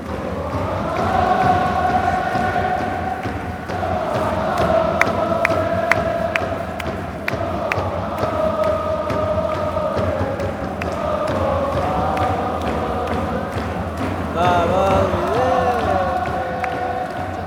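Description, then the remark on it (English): A massive soccer stadium crowd of fans, with a tifo display, chants in unison, a sustained sung melody rising and falling with steady rhythm, loud and continuous, with scattered claps and whistles cutting through near the end. “We're giving the people a vibe of the stadium.”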